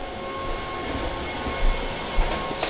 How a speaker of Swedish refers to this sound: Jag ska leta rätt på dammsugarjäveln som far runt också. Den här mm. jävla robotdammsugaren den är ju värdelös.